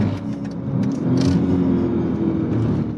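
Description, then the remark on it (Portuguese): The V8 engine of an armored Mercedes AMG car accelerates, heard with the roof closed, with a deep, steady roar that swells and climbs slightly in pitch, staying loud throughout with a rough, throaty rumble and no voices. “Detalhe, carro é blindado, nós estamos com o teto, tô com o teto fechado, vocês ainda conseguem ouvir a brutalidade desse V8.”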